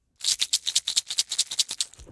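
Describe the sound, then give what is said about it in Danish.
A container is shaken, its contents rattling in a quick, steady series of about fifteen bright, gritty bursts over two seconds, fairly loud with no voices. “Det er en beholder, hvor der er noget inde i. Det noget kunne jo være sten,”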